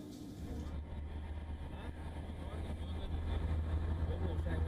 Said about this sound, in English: travelled from Samarkand to Tashkent on Uzbekistan's high-speed train